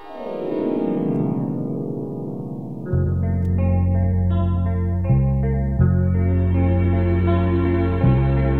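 A song's instrumental intro opens with a swirling, effects-laden synth sweep, then settles into loud, steady sustained bass notes and chords that shift every couple of seconds, with no voices.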